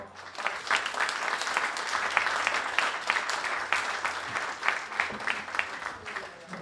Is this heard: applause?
yes